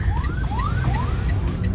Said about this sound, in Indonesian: ambulans ntar deh gue minggir dulu lewat iya. gila gila gak sih kayak um, eh, dengar ambulans itu tuh udah